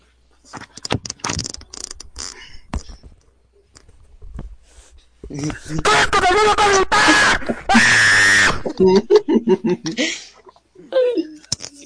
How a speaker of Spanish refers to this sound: Grito como niño.